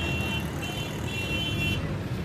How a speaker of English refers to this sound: Sometimes they were a reminder that the morning is near, even before the rooster would crow. The horns and the sound of car engines and of merchants shouting, searching for transportation of their goods to the market, were always buzzing